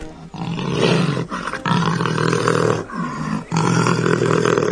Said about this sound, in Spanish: el rugido de la pantera prisionera, con este sorprendente audio.